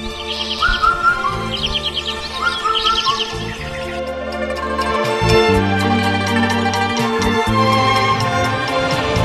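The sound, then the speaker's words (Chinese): Bright, high chirps and trills of magpies and cuckoos in spring come in quick repeated bursts, clearest in the first few seconds, over steady instrumental music that carries on and grows fuller toward the end. “它在喜鹊、杜鹃嘴里叫。”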